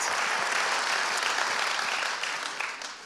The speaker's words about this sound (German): Und ich würde sagen, lasst uns denen mal einen großen Applaus geben, weil die werden sich sicher den Livestream zu Hause anschauen.